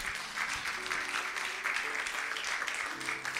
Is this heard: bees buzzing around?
no